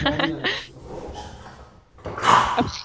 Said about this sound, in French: Moi, ah, je pense qu'on on entend un peu le toutou qui mordit.